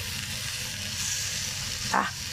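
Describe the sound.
Steady, crackling sizzle of a cutlet frying in a pan to brown it, a broad hiss that runs the whole time, with a brief short voiced exclamation near the end.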